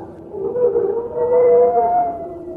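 A singing dog howls in a long, sustained, eerie single tone that wavers slightly in pitch, sounding almost like a whale call, fairly loud with no talking.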